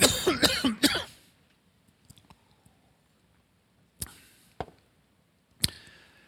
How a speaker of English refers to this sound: I'm going to cough.